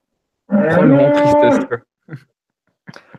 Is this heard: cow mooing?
yes